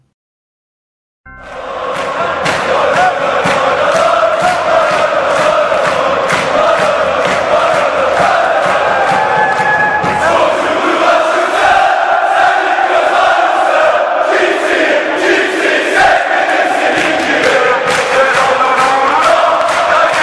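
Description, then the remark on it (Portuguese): A large crowd of Galatasaray football supporters sings a club chant in unison, loud and continuous, with many voices blending into a dense roar that starts abruptly and never lets up. “Bastante romântico, então vamos sair escutar essa música na nossa parte musical”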